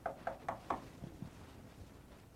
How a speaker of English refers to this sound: They keep knocking.